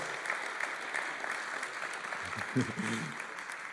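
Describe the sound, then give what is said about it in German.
An audience claps steadily throughout, a dense, crackling patter of many hands at moderate loudness, with a brief voice or cheer rising out of it near the end. The applause is for the oldest team. “Eigentlich wäre es schön, jetzt einen Applaus für das älteste Team zu haben, ja, weil so, ich denke.”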